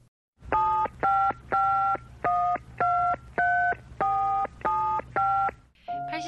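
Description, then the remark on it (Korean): A series of nine crisp telephone keypad tones, each a short steady dual-pitch beep with brief gaps, dialed at an even pace over a low hum, followed by the start of a ring; a call being dialed to the Korean publishing magazine company Chulpan Journal (출판저널). “제가 한번 전화해 보겠습니다.”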